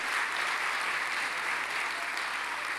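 Steady applause from an audience fills the whole stretch, a dense, even patter of many hands clapping at once with no voices standing out.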